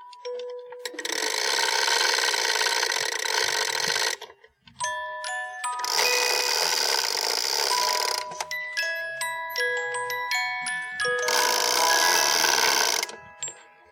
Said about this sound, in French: mon père qui remontait le coucou comme ça, c'est un truc, même quand je le voyais pas faire, j'entendais, j'allais me coucher, j'entendais. Il est remonté, puis il l'arrêtait pour pas que ça nous réveille la nuit.